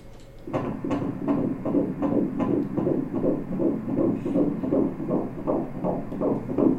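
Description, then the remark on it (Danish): A rapid, steady whooshing heartbeat from a fetal ultrasound Doppler scan, pulsing about twice per second with a swishing, throbbing texture, loud with no talking. “Der er ingen tvivl om, den er der i hvert fald, ikke også? Ja, en dejlig lyd.”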